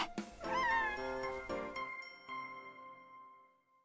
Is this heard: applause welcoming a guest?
no